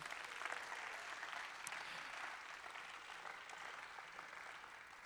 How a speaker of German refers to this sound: Oh! yes, wir feiern euch. Riesigen Applaus für euch.